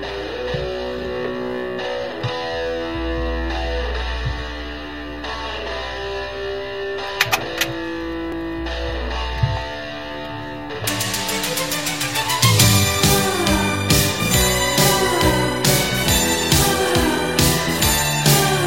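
An upbeat 1980s Spanish pop song plays, opening with steady synth and bass lines before a fuller, louder band section with punchy drums kicks in partway through. No singing is heard yet.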